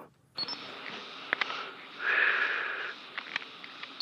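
A camera shutter clicks a few times, then a motor winder whirs for about a second, followed by more small mechanical clicks over a steady low hiss.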